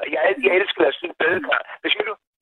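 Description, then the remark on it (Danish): A voice comes through a crackly, narrow-sounding phone connection, fairly loud, with the tinny, slightly distorted quality of a poor connection running under the continuous speech. “Ja, det du bare skal vide, det er bare, at din telefon, den skratter lidt, og jeg tror ja.”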